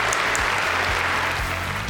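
A group breaks into applause, a dense, steady wash of many hands clapping at an even loudness throughout, with no voices over it.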